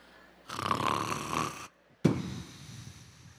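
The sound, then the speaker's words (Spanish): A person imitates the snoring of someone asleep with a long, rasping inhaled snore, a brief pause, then a shorter snorting exhale, loud. “Yo no sé cómo dormirá usted, pero a veces uno hasta hace ruido, ¿verdad? Así.”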